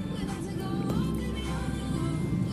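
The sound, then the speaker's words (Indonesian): Steady low rumble of a car engine and road noise, continuous, in a traffic jam at 7:39 in the evening on the way home from the office after rain, with faint tonal hums drifting over the drone. “Lagi OTW pulang kantor. Lagi macet, habis hujan juga.”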